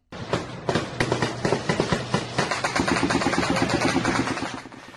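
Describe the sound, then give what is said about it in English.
Gang gunfire at night in a neighborhood of Port-au-Prince, Haiti, from a video a resident recorded: rapid, dense volleys of sharp cracks and pops firing continuously for several seconds, loud and rattling, then cutting off abruptly. No one speaks. “If you live in Haiti these days, whether you're rich or poor, chances are a typical night in your neighborhood includes gang gunfire like this.”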